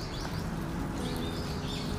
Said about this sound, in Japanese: 聞こえますセミさんたちはもう一人もいませんよセミの声に代わって鳥たちが本当に元気よくあ遠くでカラスさんも三角多様性の鳥さんの会話が聞こえてきますが